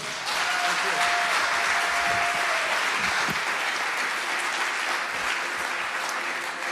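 Sustained applause from an audience in a church hall for a preacher after his sermon, a dense, steady wash of many hands clapping at an even loudness for several seconds, with no voices standing out.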